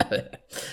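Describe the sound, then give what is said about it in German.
A single sneeze: a brief voiced catch of breath, then a sharp, hissy burst of air that trails off quickly. “Gesundheit.”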